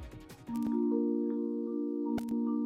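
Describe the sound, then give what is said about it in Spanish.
A loud, steady electronic test tone from Mexico City's public loudspeakers, part of an audio test of the more than 12,000 loudspeakers in the capital, sounds continuously after a brief burst of noise, holding one pitch with a couple of short clicks near the end. “lo que acaban de escuchar es el sonido de la prueba de audio.”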